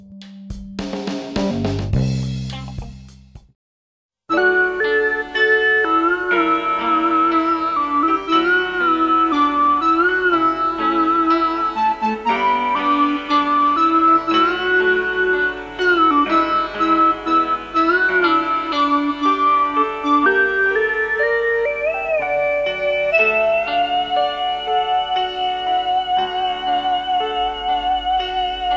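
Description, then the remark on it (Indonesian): A brief burst of sound cuts off into a moment of silence, then the instrumental intro of an Indonesian song begins: steady, melodic music with sustained tones and a gliding lead line, playing loudly with no singing or talking. “Penasaran dengan lagunya? Mari kita dengarkan.”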